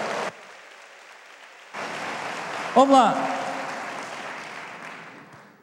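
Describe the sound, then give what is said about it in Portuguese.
A church audience breaks into loud, sustained applause after a brief pause, a voice calls out briefly over the clapping, and the applause slowly tapers off toward the end. “Só quem quer fazer parte dessa igreja, aplauda ele bem forte, diga aleluia.”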